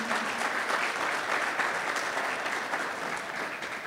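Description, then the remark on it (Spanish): A crowd gives an applause to the Lord, clapping steadily, a dense wash of many hands clapping at an even loudness throughout, with no distinct individual claps standing out and no voices. “Así que también vamos a dar un aplauso al Señor.”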